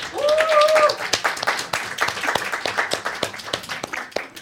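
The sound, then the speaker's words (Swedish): A small group applauds the sound technician of the Radio Total Normal broadcast with dense, steady clapping that thins toward the end, and a brief high whistle or cheer rises over it at the start. “En applåd!”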